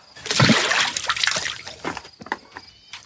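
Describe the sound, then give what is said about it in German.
Drinking water is poured and sloshes for a couple of seconds, a broad splashing burst that thins into scattered trickles and drips toward the end. “Hier, Wasser.”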